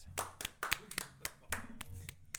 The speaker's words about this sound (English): So I would like to celebrate them and thank them for their service in this district. We can celebrate and clap for that.